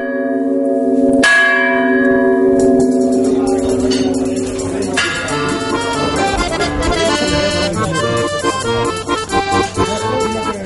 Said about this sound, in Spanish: La madrugada del 9 de enero de 2009, a las 0 horas y 12 minutos, justo 50 años después de que el agua del embalse de Vega de Tera irrumpiera en las calles de Lago, las campanas de la iglesia volvieron a doblar en recuerdo a las víctimas.